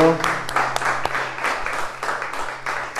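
An audience at a worship service applauds the Lord for the life of each one of them, with steady, dense clapping that holds at an even level throughout, with a brief tonal voice or sound at the very start.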